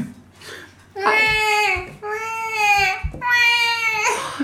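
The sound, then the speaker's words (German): A person imitates a crying baby with three long, wailing cries in a row, each a sustained rising-and-falling howl, loud with brief breaths between them. “warte, warte, ich mach mehr Baby.”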